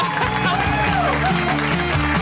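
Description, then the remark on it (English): A live Harmontown audience cheers and applauds loudly for Rob Schrab, a dense wash of clapping and whooping voices that carries on steadily without a break. “Cheer for Rob Schrab.”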